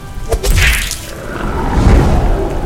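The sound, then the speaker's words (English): A quick whoosh sweeps past, followed by a heavy, booming punch impact with a low rumbling tail, loud, with no voices: a mighty fist landing a crushing blow to a face. “Batna, relentless, followed close behind, slipping beneath the arc of Mary's hissing Balik, and landing a crushing blow to Mary's face with a mighty fist.”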